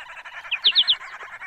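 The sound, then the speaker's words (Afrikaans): A dense chatter of birds fills the background, then a finch cuts through with four sharp, bright chirps in quick succession, clear above the flock. “Eers praat almal gelyk, want elkeen het sy eie mening om te lig, maar dan maak vink hulle stil en roep.”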